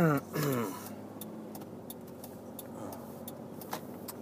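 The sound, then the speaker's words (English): Steady low engine and road rumble inside the cabin of a moving 4Runner, a big truck-type SUV, somewhat louder than a regular car, constant throughout, with scattered faint clicks and a brief burst of a voice at the very start. “so I apologize for the slightly louder car noises. I am in a big truck type SUV esque thing. A 4Runner.”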